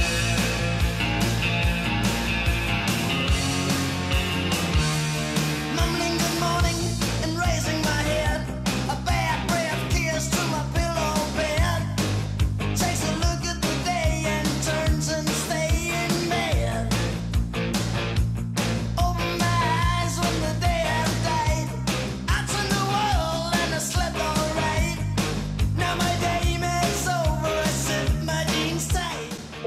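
A loud rock song plays steadily throughout, with driving drums, dense guitars and a sustained full-band sound. No talking breaks in over the music.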